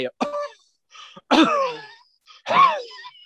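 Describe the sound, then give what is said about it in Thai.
A person acts out choking, as if an object is lodged in the windpipe: three strained, raspy bursts of coughing and gasping, groan-like sounds, each separated by a brief silent pause, with no clear words spoken. “อาการที่คุณจะดีเทคได้เนี่ยก็คือว่าคนคนนั้นน่ะจะพูดไม่ได้ แล้วก็จะมีเสียงหายใจที่ผิดปกติ คือทาร์ดมันก็คือเสียงเหมือนกับลมที่ผ่านท่อที่มันตีบตันนะฮะเพราะว่าของมันเข้าไปลงอัดอยู่อุดอยู่ในหลอดลมใช่ปะพูดไม่ได้แต่ไม่ออก แล้วก็มีอาการไอ”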